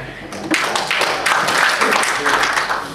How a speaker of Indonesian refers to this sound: Tepuk tangan untuk kita.